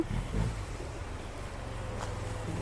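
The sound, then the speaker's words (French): A scooter engine on a sidewalk drones steadily, a low buzzing hum that holds even throughout, with a rushing, wind-like hiss layered over it and no voices. “c'est c'est le scooter qui est sur le trottoir.”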